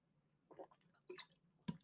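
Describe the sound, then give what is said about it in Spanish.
Quiet sips and gulps of water, three or four short wet mouth sounds with pauses between, ending in a sharper click. No one speaks. “Un momentito que beba agua.”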